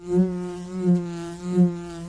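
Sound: buzzing bee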